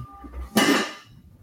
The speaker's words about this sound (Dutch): Wat is dat? Ding dong, ja, de bel gaat hier, dames en heren.